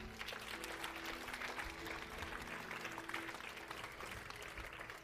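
A crowd gives the Lord a hand clap, applauding steadily for several seconds, a dense wash of hand clapping at an even, sustained loudness, with a faint murmur of voices and a low hum beneath it.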